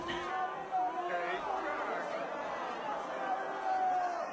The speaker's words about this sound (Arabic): استشاط الجمهور غضبا انه يطلق عبارات استهجان